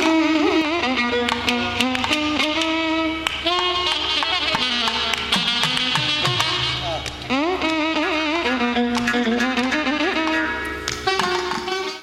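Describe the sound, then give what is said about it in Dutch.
Traditional South Indian Tamil music by an Indian artist plays loud and steady, with a constant drone beneath a winding, ornamented melody and crisp percussion strikes punctuating the rhythm throughout. “Ja, dit was de artiest die ik vanochtend luisterde... waarvan ik zei, wat een gekke muziek. Ja, het, is op zich vrij traditionele muziek.”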